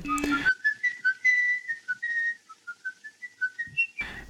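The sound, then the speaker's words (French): A man whistles a short melody, a quick run of clear notes rising and falling with a few held tones, on its own with no talking. “donc on a un tueur en série, enfin un tueur d'enfants qui se fait plus ou moins gauler parce qu'il n'arrête pas de siffloter et c'est un aveugle qui reconnaît son, sifflotement et qui, le confond.”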